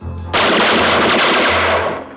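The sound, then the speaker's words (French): A loud burst of rapid automatic gunfire rattles continuously for nearly two seconds, the shots blurring into one dense roar before cutting off; no one speaks. “Bang, bang, bang, bang.”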